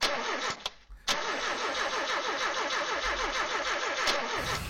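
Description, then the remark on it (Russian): A car engine cranks over and over with a fast, steady whirring rhythm, loud, never catching and firing up, after a couple of short clicks at the start. “Ну что же, Если про Ламборгини, там будут не заводиться.”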